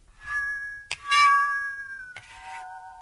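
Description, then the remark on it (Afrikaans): A musical saw stroked along its back, not the toothed edge, sings a few sustained, slightly wavering notes of a hymn that slide in pitch, separated by brief scraping attacks, moderately loud with no voices. “of selfs met 'n gewone stokkie, Engels dowel stokkie kan jy as jy 'n bietjie haar puis op het, kan jy ook oor die saag se rug, dit, dit wil sê nie die saag tandkant nie, maar die saag se rug kan jy streel en dan kom daar 'n klank uit.”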